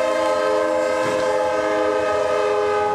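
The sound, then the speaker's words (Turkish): A train horn blares in one long, steady blast with strong sustained tones over rumbling rail noise, loud, as an Eskişehir–Konya train approaches a level crossing with closed barriers in Çobanlar, Afyonkarahisar, Turkey, in the morning. “Hem zemin geçitte bariyer kapalıydı. Tren yaklaşıyordu.”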